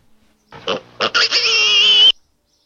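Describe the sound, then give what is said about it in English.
A pig grunts a few times in short, quick bursts, then breaks into a long, shrill squeal, loud with no voices around it. “the correct answer was pig.”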